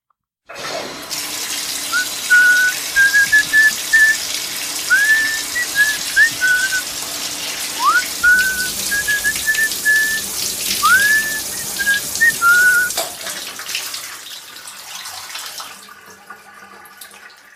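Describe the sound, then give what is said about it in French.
Steady hiss of shower water pours for about fifteen seconds while someone whistles a wavering, tuneful melody in short phrases over it, before the water shuts off. “D'où par exemple l'effet bénéfique de la douche.”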